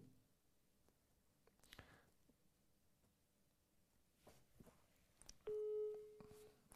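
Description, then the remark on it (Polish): After several seconds of quiet room noise with a few soft clicks, a loud, steady telephone ringing tone begins near the end and holds as one long beep as a phone call is placed to the next person. “Dzwonimy do kolejnej osoby.”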